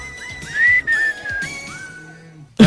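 A person whistles a short wavering melody of a few rising and sliding notes, fairly loud and steady, ending with a brief thump.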